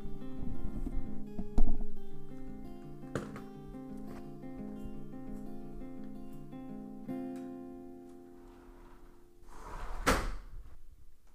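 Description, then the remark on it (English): A door is pulled closed from inside with long, wavering creaks and a few knocks along the way, ending in a loud latching thud near the end. No one speaks. “And now, since we are inside, I will close the door.”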